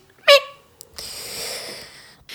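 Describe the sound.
A person imitates a cat chattering at a bug: a short, high squeaky chirp followed by a long breathy hiss, with no speech around it.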